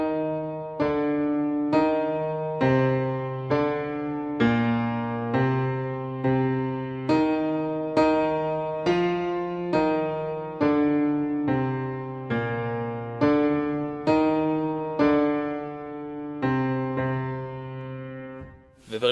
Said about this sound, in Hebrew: ובשיאו של הפרק מגיע דיאס אירה, שזה מזמור אה, כנסייתי, מזמור נוצרי עתיק, שמזוהה מאוד עם המוות. נשמע ככה.